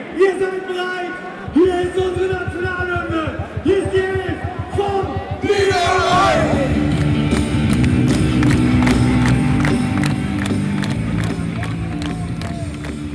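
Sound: stadium crowd singing along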